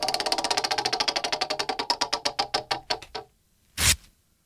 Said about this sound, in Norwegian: Å, oh, hørte dere det? Ok! det var jeg som eh, rev i stykker eh, noe vi bruker hver dag, nemlig et, en rute med dopapir.